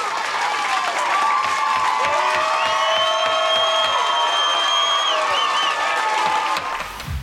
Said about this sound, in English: Well, as you can tell, there was quite a rousing, and I'm saying rousing, round of applause for you. Um, I mean, everybody loved it. Everybody was so behind you, and obviously, everybody was behind everyone there.